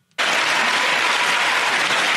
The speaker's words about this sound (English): Everyone's clapping at that.